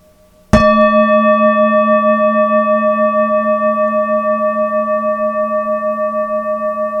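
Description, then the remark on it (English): A single bell is struck once, loud, then rings on with a long, shimmering, slowly wavering tone that barely fades over several seconds. No voices are heard. “The sound of the bell a little louder.”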